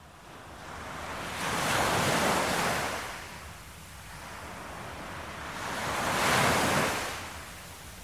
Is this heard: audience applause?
no